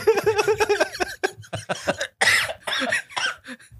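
A string of loud coughs: a quick run of short voiced hacks, then several harsher, breathier coughs spaced a little apart, with no talking.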